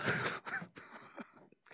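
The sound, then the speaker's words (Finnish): A voice imitates the heavy, breathy panting of an obscene night-time phone caller, a few rough gasping breaths in quick succession, moderately loud, with no words spoken. “ei osaa kuitenkaan vastata, että minkä takia näiden yöllisten puheluiden sävy pitää olla sellainen, että sieltä soitetaan huohottamalla.”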